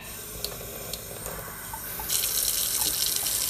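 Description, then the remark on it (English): A few sparse drips tick into a kitchen sink with separate hot and cold faucets, then the faucet opens into a steady, loud rush of running water that continues to the end. No one speaks. “and then it starts just making a dripping sound.”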